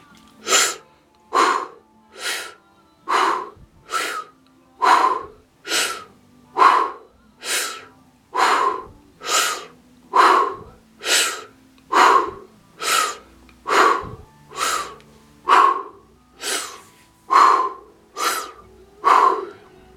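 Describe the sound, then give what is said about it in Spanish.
Forceful, rhythmic breathing exercise that shakes the rib cage, drawing force from the shoulders: about twenty sharp, loud breaths in a steady pulse of roughly one per second, with no talking. “si que mueves la columna, toma la fuerza de los hombros y agita la caja torácica con la respiración.”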